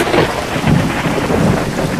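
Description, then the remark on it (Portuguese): A thunderstorm: loud, continuous rain hisses steadily while deep thunder rumbles and rolls underneath, swelling in waves through the whole stretch. No voices. “Começou a escurecer o céu e uma tempestade imensa caiu. Com raios, trovões, estrondos enormes.”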